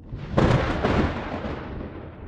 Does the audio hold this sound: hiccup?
no